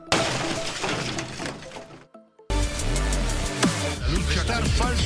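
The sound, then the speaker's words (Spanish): Glass shatters loudly in a dense, crashing burst of breaking shards as the intro to the radio segment El Cristalazo by Rafael Cardona, then after a brief near-silent pause a second loud smash follows, layered with ringing, sweeping tones. “Prepárate para escuchar El Cristalazo por Rafael Cardona.”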